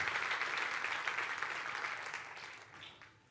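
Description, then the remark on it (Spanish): An audience breaks into dense, steady applause, a broad crackling wash of many hands clapping at once that slowly tapers off toward the end. “Yo bendigo a Dios por eso y me gustaría que le demos un fuerte aplauso a Dios por eso.”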